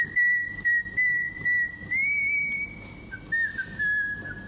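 A clear whistled melody, one sustained tone gliding between notes in a relaxed, tuneful line, with soft music or hum underneath and no talking.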